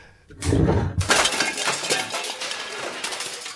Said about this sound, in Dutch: hoofd wordt nu op de mengtafel als een rauw ei kapot geslagen.